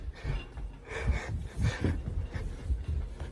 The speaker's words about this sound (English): and this is like things just keep oh my god, and someone's knocking.